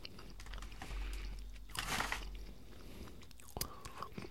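Chewing and crunching of edamame, with a burst of wet mouth noise midway and a few sharp clicks near the end, no talking.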